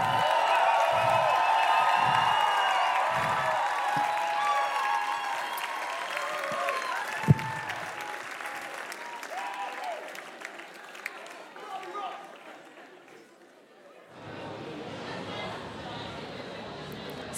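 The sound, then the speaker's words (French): A large festival crowd at the BIS Festival in Nantes cheers, whoops and applauds loudly for several seconds, the roar gradually thinning out, before a steady hiss of general background noise takes over near the end. “Faites encore un peu de bruit, s'il vous plaît. Une dernière fois.”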